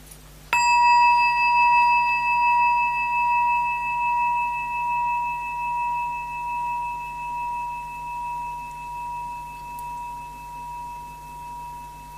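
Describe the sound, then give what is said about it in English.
A single bell is struck once, ringing out with a clear, sustained metallic tone that slowly fades over about twelve seconds, with a gentle pulsing waver as it decays. No one speaks. “So if I ring the bell, and it's like it takes a little bit of effort, almost keeping the mind right at the rawness, the nakedness of the sensation.”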